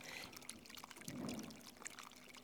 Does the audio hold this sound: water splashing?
yes